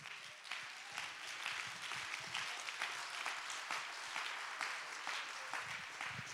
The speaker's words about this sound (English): Come on, everybody, clap your hands and give God the praise.